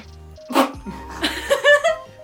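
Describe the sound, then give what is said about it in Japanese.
A single sharp, explosive sneeze bursts out, followed by a few brief breathy vocal sounds. “大丈夫ですか くしゃみが出てしまいました、はい、すいませんでしたはい”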